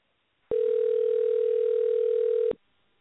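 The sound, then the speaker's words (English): A steady, unbroken telephone dial tone hums loudly over a phone line for about two seconds, starting and cutting off abruptly, with no voices, as a caller dials to call someone back after the line dropped. “And uh, I'm going to call her back, and I want to apologize here.”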